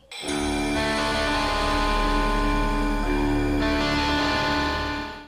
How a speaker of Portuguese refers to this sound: É a mesma intro de guitarra, pô. A mesma, a mesma a ah, mesma.